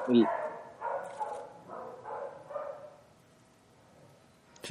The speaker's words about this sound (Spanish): oigo que ladra un perro. No te preocupes, esos perros ladran todo el día aquí en mi casa, así es que son ah, parte ya son parte del podcast.